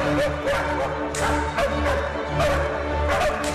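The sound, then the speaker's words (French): Live dogs bark in short, repeated bursts, roughly in time with an orchestra playing a piece that is usually performed with recorded dog barks. The yips and woofs are loud against a steady, sustained, layered musical backdrop. “Vous voyez, on entend bien la musique derrière et il faut essayer de faire aboyer les, les chiens en rythme.”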